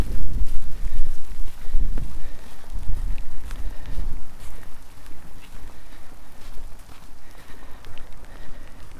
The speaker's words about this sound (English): But today, now that it's wet and windy, there's barely a soul on it.